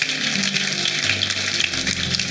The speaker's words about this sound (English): Let's together and give the Lord a hand clap of praise.